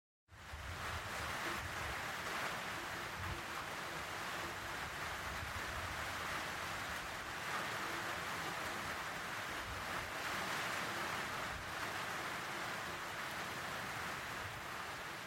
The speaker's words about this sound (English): Can you hear that? When it rains heavily in Wolvi, Beenham Valley Road becomes boggy. The surface holds so much water that cars have to slow to a crawl.